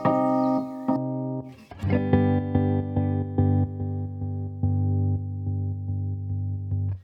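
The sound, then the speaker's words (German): A sustained, buzzy harmonic tone is chopped by a modulation pedal playing pattern 17 into a rhythmic pattern of longer and shorter pulses, the pattern shifting as a knob is turned. No talking. “Ich, ich nehme jetzt mal hier dieses Pattern 17, spiele das mal durch und ich drehe mal ein bisschen den Regler.”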